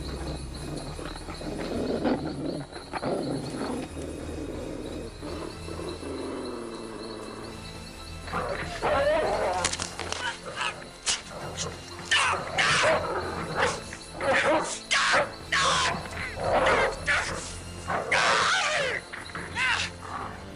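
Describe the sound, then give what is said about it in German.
Low rumbling ambience gives way to a wolf's vicious snarls and growls, with sharp crashing bursts as it attacks the player's party in a video game, loud and frantic. “Und er fällt trotzdem über uns her.”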